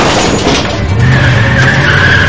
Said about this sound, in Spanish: Gary acelera impactando contra la puerta del garaje que no cede.